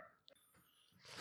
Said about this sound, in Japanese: ちょっと今ね犬の声が 多分入っちゃってると思うんだけどまあこのまま無視しましょう行っち行っちゃいましょうもうしょうがないです入ってたら、はい、すいませんリスナーの皆さん めっちゃ入ってる こんなんずっと後ろで流れてたら虐待 してんじゃねえかって思われちゃうね